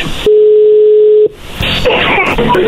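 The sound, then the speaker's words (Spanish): A telephone dialing tone as a dropped call is dialed again: one loud, steady low-pitched beep lasting about a second, followed by a burst of crackly, noisy line static. “ya con esto, ahí se está marcando.”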